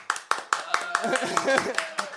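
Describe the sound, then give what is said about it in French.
Clapping from an audience in a quick, fairly steady rhythm of sharp claps, with voices murmuring or calling out underneath through the middle. “Euh, mais vu qu'on fait de la musicologie objective, il va falloir continuer l'applaudimètre.”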